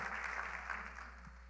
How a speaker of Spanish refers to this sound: Aplauda al Rey de Reyes, señores de Señores.